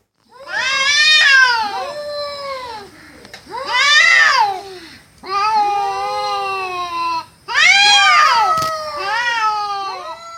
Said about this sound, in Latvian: Ka kaķu, tā kā kaķi cīnās vai ka viņi kliedz, tad izklausās, ka bērni raud. Jā, tie bija kaķi, kas strīdējās. Tā bija muzikāla, bet diezgan iesprūdusi diskusija starp diviem kaķiem.